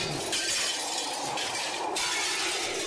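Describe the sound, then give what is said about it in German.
The windows and doors of a house rattle in a violent storm, a loud, continuous glassy clatter with rapid jittery bursts over a hissing wash of noise, and no voices. “Hier klappern schon die Fenster und Türen.”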